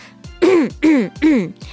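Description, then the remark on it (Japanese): Three loud throat clears in quick succession, each a short voiced rasp with a rough, gravelly onset, separated by brief pauses with soft breaths between them. “やっぱり咳払いをしてしまいました。”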